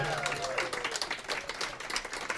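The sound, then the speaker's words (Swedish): An audience applauds steadily for a guest from Finland who is asked to stand up. A dense patter of many hands claps at an even level throughout, with a faint tone gliding downward at the start. “Det, det, eh, det här är ju lite Ställ dig upp så vi får lite Ja, en, applåder. en applåd.”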